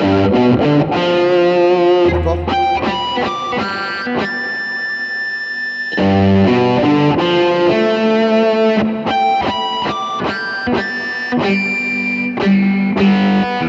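Distorted electric guitar plays artificial harmonics, bright squealing high notes mixed with chunky picked phrases, a sustained ringing harmonic held for a couple of seconds mid-way, loud with no talking.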